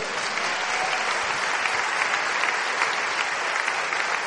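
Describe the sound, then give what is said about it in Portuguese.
Sustained applause from a large audience applauding the name of Jesus, a dense, steady wash of clapping hands at even loudness throughout, with no voices standing out above it. “Se você crê nisso, aplauda o nome de Jesus.”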